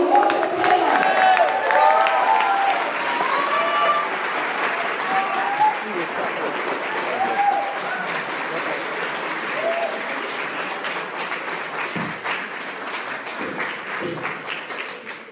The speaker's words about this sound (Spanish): Aprovechemos al máximo toda la información que tiene para darnos y recibamos con un fuerte, pero fuertísimo aplauso